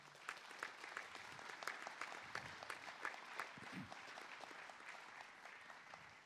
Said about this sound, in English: And we're thankful to these kids for performing for us. Can we just give them another round of applause?